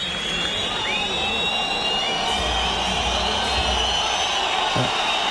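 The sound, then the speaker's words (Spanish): A large bullring crowd at a bullfight roars in disapproval, a steady dense wash of booing threaded with shrill, sliding whistles that rise and fall throughout, with no pause in the noise. “La bronca es monumental.”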